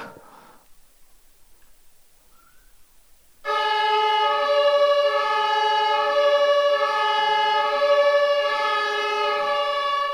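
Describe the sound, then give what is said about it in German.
After a few seconds of near silence, a loud German emergency vehicle siren (Martinshorn) blares steadily, a rich harmonic tone that holds its pitch with slight pulsing through to the end. “70 Dezibel, das war die Lautstärke, mit der man früher das Martinshorn gefahren hat.”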